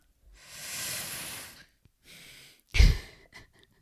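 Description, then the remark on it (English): A long, airy inhale followed by a breathy exhale, then a sharper, louder puff of breath out, clear with no talking. “Just breathing in and then pass it to the left it's all peace and love, babe.”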